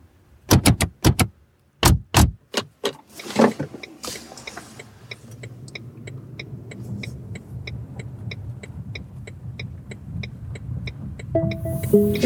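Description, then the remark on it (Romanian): Several sharp door-like thuds and clicks, then a steady ride in an autonomous public transport vehicle in Bucharest, Romania: a low engine rumble from inside the cabin with a regular ticking, like a turn signal, and a brief tone near the end. “Vă mulțumim că ați ales să călătoriți cu Autonoma, cel mai intim și ecologic mijloc de transport în comun din București.”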